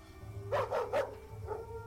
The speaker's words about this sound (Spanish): exclamé al percatarme que nuestra mascota ladraba de manera intensa. Soltaba mordidas a diestra y siniestra, algo que no podíamos ver en ese momento.